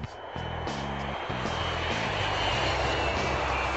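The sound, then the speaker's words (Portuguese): A steady airplane engine roar fills the short stretch, a loud, continuous drone with a low humming rumble underneath and broad rushing noise on top, holding even throughout. “A, a gente vai tocando o barco por aqui, a gente vai agora conversar com o Laurenberger, então vamos pegar o avião da Poliesportiva.”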